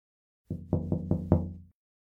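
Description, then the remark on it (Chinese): Five sharp knocks on the window of a train's conductor compartment in a steady, even rhythm, each ringing with a hollow, low resonance that fades quickly. No voices are heard. “他找到了车长室，敲了车窗”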